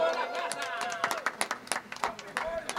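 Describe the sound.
A burst of scattered hand claps for a band's conga player, irregular and sharp, growing denser partway through, mixed with overlapping voices and cheerful chatter from a small group.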